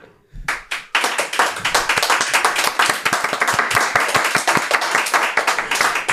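A crowd breaks into steady applause after a couple of opening claps, many hands clapping densely and loudly for several seconds, fairly close and continuous.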